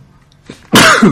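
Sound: sneeze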